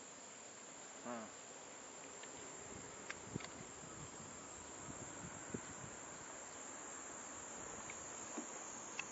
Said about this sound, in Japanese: セミの声は聞こえますか